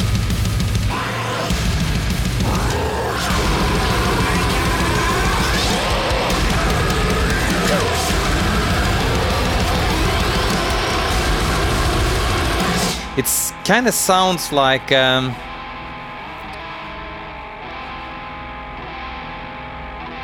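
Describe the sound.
Dense, loud technical death metal with heavy distortion, then a burst of stuttering, robotic electronic effects near the end before it drops quieter. A voice briefly speaks over it.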